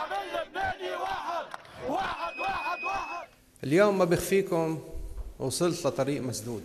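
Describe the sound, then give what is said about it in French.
A street crowd of protesters in Beirut, Lebanon, cheers loudly at the news of Prime Minister Saad Hariri's resignation, many voices shouting and chanting together in rising bursts, with a brief dip before a fresh, louder surge of cheering. “La nouvelle a été accueillie par les vivas de la foule qui occupe la rue à Beyrouth et dans les autres villes du pays.”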